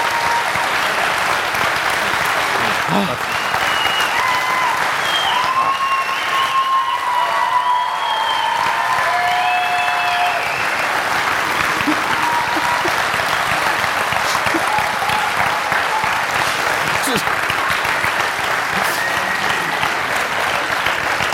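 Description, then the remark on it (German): Sustained, loud applause from a large audience in Bad Zwischland, dense and steady for about twenty seconds, with scattered whistles and cheers rising above the clapping. “Bitte. Hört auf,”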